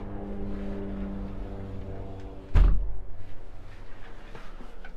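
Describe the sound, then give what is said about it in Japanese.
A steady low droning hum of a helicopter overhead, then a sudden thud like a window shutting, after which the engine noise drops to a muffled rumble. “ちょっとヘリコプターの音がうるさいんでまだ閉めようかな。”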